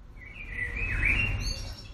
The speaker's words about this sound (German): Ach so, die kleinen Vögelchen hier, die bringen euch von einem Thema zum nächsten, die wir übrigens alle im Homeoffice aufgenommen haben.